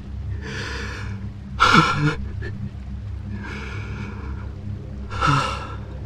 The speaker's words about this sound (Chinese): 老人大口喘息，汗出如浆。